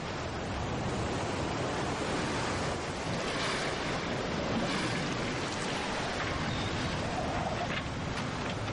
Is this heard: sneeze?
no